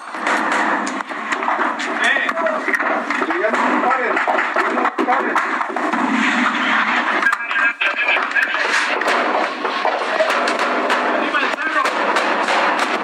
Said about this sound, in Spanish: Arriba del cerro decían, y escucha la metralla constante, cientos de tiros disparados durante la madrugada allá en Tierra Caliente.